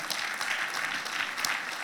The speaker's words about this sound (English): Yeah, we can clap about those testimonies.